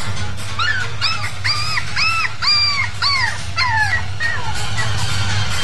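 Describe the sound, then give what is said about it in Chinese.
A dog named Wangwang, hit by a car after running onto a road and bleeding, whimpers in a run of high, wavering whines, each rising then falling in pitch, repeated about a dozen times over a steady low rumble. “这只狗怎么突然冲出来？”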